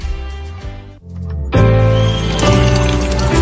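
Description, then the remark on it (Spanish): Drinking water runs steadily from a tap in a home in the Dominican Republic, a loud, continuous gush that starts after a brief lull and keeps flowing to the end, with a faint tonal bed underneath. “Que ahora el agua potable llegue a casa de Miriam y de dos millones de hogares más”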